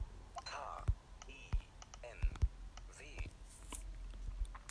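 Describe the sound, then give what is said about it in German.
Several soft, sharp taps spaced irregularly, fingers tapping a phone screen to type the search word "hinw" into a search field, beneath quiet, murmured speech. “Ähm, deswegen suche ich jetzt nach dem Wort hinw, das reicht schon.”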